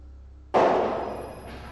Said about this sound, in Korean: 하지만 평소에는 전혀 이상한 증세가 없는 나인데 지금도 새벽 2시만 되면 여전히 망치로 벽에 대못 박는 소리가 들린다.